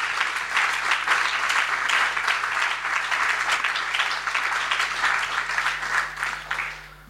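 Sustained audience applause, given at a speaker's request for two people who had spoken openly: a dense, steady wash of many hands clapping at even loudness for about seven seconds, thinning slightly at the very end. No voices stand out over it.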